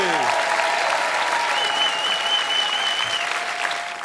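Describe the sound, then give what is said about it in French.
A large live audience at the Apollo applauds steadily, dense clapping with scattered cheers and whistles rising above it, a long whistle standing out midway, then the ovation gradually softens. “Du bruit pour Léa, s'il vous plaît.”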